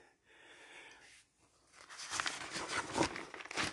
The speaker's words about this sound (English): So we go on um, to, excuse the page turning, people.